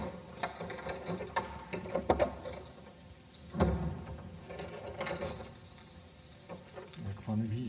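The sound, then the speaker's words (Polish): A bunch of keys jangles and clinks in irregular bursts in a palace, on the way into its Moorish hall, with metallic rattling and clicks like a lock being worked, and a voice murmuring faintly now and then. “jestem zupełnie jak Gerwazy. Kluczy, a kluczy.”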